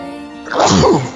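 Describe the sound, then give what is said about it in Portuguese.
A single loud sneeze bursts out after a brief quiet lead-in, a sharp breathy explosion that trails off into a rough exhale. “Eita, desculpa.”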